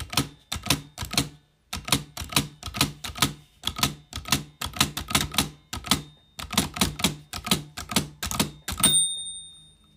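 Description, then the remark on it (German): Rapid, uneven clacking of typewriter keys in bursts, crisp, ending with a single bright bell ding as the carriage nears the right margin, two or three characters before the edge. “Ja, das war jetzt so ein Klingen. Das, da weiß man, okay, sind vielleicht noch zwei, drei Zeichen, dann ist man am Rand.”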